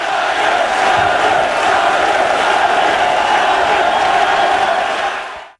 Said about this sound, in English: Tiger Woods, the 2019 Masters champion. One of the great comeback stories in American sports history. Masters number five, Major number 15, and Augusta National roars like never before.